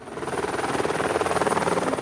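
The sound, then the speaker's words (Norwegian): A helicopter drones steadily overhead, its rotor blades beating in a fast, even chop with a broad engine roar, fairly loud, with no voices. “Hører du helikopteren?”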